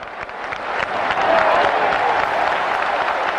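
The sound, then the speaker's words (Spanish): A crowd bursts into sustained applause, dense clapping that swells after a moment and holds steady and loud, a warm ovation for Juan José Padilla. “Otra ovación, y no es la primera que le dan a este hombre, para Juan José Padilla,”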